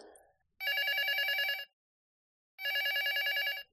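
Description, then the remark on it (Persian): A telephone rings twice for an unexpected, short afternoon call, each ring a loud, trilling electronic burst lasting about a second, separated by a pause of silence. Clear, with no voices. “یک روز بعد از ظهر تلفن غیرمنتظره و کوتاهی به من شد.”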